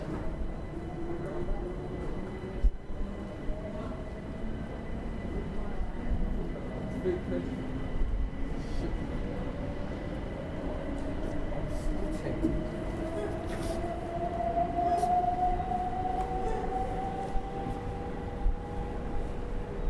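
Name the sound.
train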